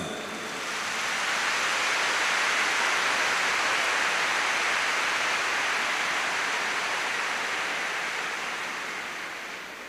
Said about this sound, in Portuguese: Give the Lord even for his great promise a clap. Dê a essa promessa uma grande, um grande aplauso.